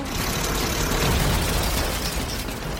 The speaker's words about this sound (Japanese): ドリルで地面を掘り出したどんどん掘ってるあわもしかしてモグラジェットコースターは地面の中を走るってこと